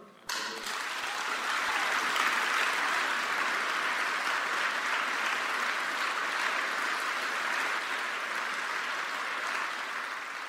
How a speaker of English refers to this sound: Please give a rounding applause to Ralph Nader, our hero.